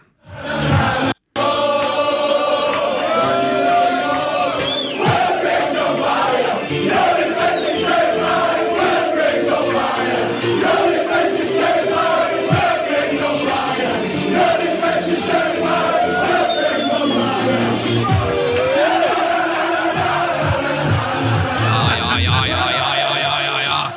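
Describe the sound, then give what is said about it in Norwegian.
A packed pub of Wigan football fans sings a loud chant together about their top scorer Will Grigg, voices ringing out in a steady, rhythmic melody with cheering and clatter. “Wiggen-fansen har lagd en nydelig sang om toppskåreren deres, Will Grigg som har skåret 25 mål i ligaen One i år.”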